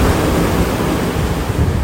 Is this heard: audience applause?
no